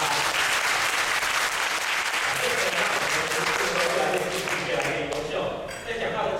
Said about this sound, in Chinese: 虽然我觉得第一次比较棒哦，可是他们刚刚也是很棒，所以再一次给他们一个热烈的掌声。